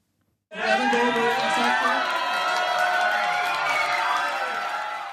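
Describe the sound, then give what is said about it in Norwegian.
A premiere audience for the film The Interview erupts in loud, sustained cheering and shouting as actor Seth Rogan meets them on Christmas Day. It starts abruptly and holds steady, many overlapping voices whooping and yelling in a dense wash of noise. “Slik låt det da skuespiller Seth Rogan møtte publikum da The Interview omsider hadde sin premiere første juledag.”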